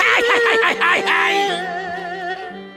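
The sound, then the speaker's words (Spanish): A loud Mexican-style grito, a wavering, gliding celebratory yell lasting over a second, gives way to sustained vibrato violins that carry on beneath and after it. “Voy a gritar como los mexicanos.”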